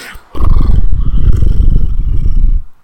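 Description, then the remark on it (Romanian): A person imitates a cat's purr with a low, rough, rattling rumble held steadily for about two seconds, fairly loud, with no talking. “Am, simțeam, uh, puteam să jur că mi s-a dezvoltat un mușchiul de tors de la pisici.”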